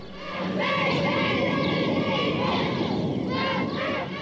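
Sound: crowd of people shouting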